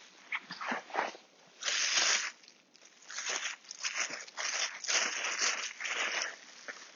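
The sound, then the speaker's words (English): A plastic freezer bag crinkles and rustles in several bursts as dog poo is picked up with it from a verge beside a field. No one speaks. “Using a uh, freezer bag uh, for those of you interested in the dog poo side of this podcast.”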